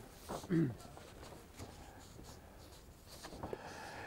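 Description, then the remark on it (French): Soft, close rustles and brief scrapes of paper being handled, a few short bursts spread across a quiet room, with a faint murmured voice near the start. “Ah oui, c'est du beau papier. Euh. C'est du papier 100% coton”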